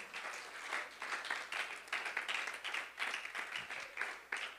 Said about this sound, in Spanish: ¿Alguien lo puede aplaudir en esta mañana?